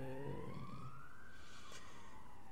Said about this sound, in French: Je sais pas ce qui se passe aujourd'hui avec les ambulances près de chez moi, bref.